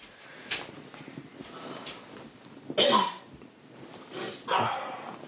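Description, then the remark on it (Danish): Several harsh coughs come in short bursts, a strong one near the middle and two more toward the end, with softer breathy sounds in between and no talking. “Nu går vi lidt og hoster hende der.”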